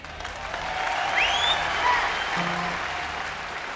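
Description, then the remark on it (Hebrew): A concert audience at the Isle of Wight applauds a singer steadily, a dense wash of clapping that swells slightly in the middle, with a few faint whistles and cheers rising above it. “למרות מחיאות הכפיים, התמיכה והאהבה שהיא מקבלת בסופו של דבר מהקהל באי ווייט”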